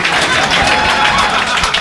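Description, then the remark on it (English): The audience at a comedy show at Comedy Bar applauds steadily after the closing line, a dense wash of many hands clapping at an even, fairly loud level without letting up. No one speaks over it. “this one's not going to get nearly the round of applause.”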